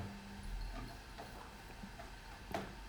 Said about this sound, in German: Jetzt läuft gerade im Hintergrund die Waschmaschine noch.